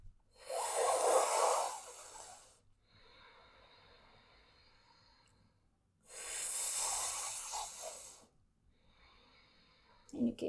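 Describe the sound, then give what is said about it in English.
Two long, airy sipping inhales drawn in through the mouth as a yoga pranayama breathing technique, each lasting about two seconds with a hissing, breathy texture, separated by quieter pauses of soft exhaling, and no talking. “These two are two of the very few pranayama techniques during which we inhale through the mouth. And it's basically you sip.”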